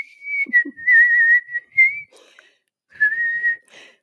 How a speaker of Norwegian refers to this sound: Og jeg sitter her alene og må både plystre og gjøre avslutningen